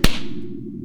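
slap to the face

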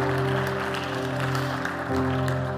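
audience applause

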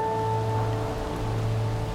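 rain falling

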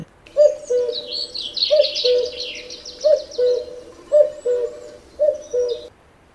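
common cuckoo calling

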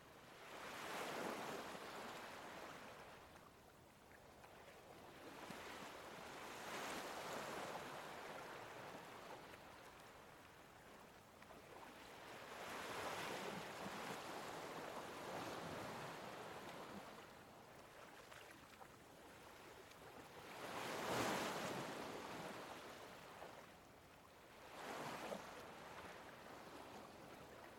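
ocean waves

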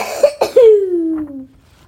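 coughing

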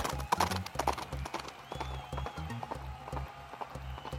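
horse hooves galloping away

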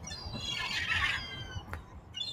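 seagulls calling

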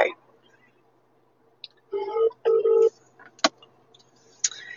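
telephone being dialed

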